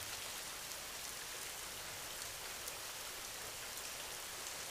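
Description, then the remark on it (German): Steady rain patters onto the ground in a dense, even hiss of countless drops, continuous and unbroken throughout, with no voices present. “Höre genau hin, wie das Geräusch entsteht, wenn der Regen auf den Boden trifft.”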